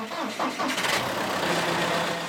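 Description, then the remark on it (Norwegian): A diesel tractor engine on a farm cranks with a few rough bursts, then catches and settles into a steady, loud rumbling idle. “Traktoren som går på diesel, kan bli elektrisk.”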